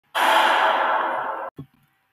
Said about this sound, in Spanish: Troy cae al suelo. Su respiración es muy agitada.